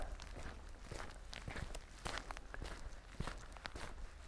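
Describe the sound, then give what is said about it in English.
Steady footsteps crunch along a dirt hiking trail at an even walking pace, moderately loud, with a soft outdoor ambience underneath and no talking. “Just sound of my feet, sound of some birds, the wind, the dog,”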